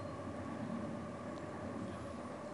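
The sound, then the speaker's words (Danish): A train rumbles steadily, heard from a forest, a dense continuous roar with a faint tonal hum running through it, loud and unchanging for the whole moment, with no voices. “Vi kan høre toget.”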